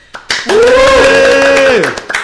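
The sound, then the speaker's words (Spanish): A few scattered hand claps from three hosts open and close the moment, framing a long, steady voiced cry held for over a second in the middle, loud and sustained. “Con nuestras seis manos queda.”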